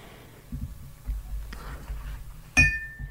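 Whisky glasses meet in a single bright clink in a toast during a tasting of Linkwood whisky from Speyside, ringing briefly before fading, preceded by soft low thumps and handling noise.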